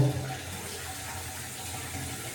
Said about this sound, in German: dann werde ich mich jetzt gleich mal, wie gesagt, etwas waschen. Das mache ich jetzt schon. Es wird also kein Dusch-Podcast, aber naja, ein bisschen waschen möchte ich mich schon.